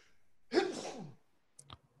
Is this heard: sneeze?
yes